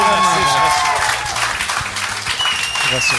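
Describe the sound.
An audience bursts into steady applause, clapping to answer whether they think what the speaker is telling is true: a dense, continuous wash of clapping with a few cheers and voices mixed in throughout.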